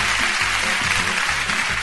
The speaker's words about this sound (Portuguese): Aplausos, aplausos, aplausos, aplausos. Faltou aplauso, então. Tudo bem. Fiquei aqui pedindo, mas chegou. Demorou, mas chegou.